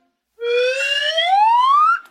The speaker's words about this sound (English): Do you feel, phonies, that the slide whistles should be the Quebecois version of the air horn sound effect? Should I replace? Should I replace?